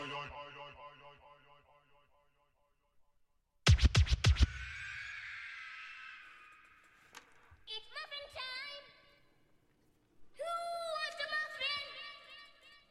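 A rap track plays, with sharp turntable scratches, a burst of heavy beat, and tonal, rhythmic vocal phrases weaving through the music.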